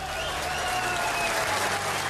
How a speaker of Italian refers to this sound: Cinque minuti di applausi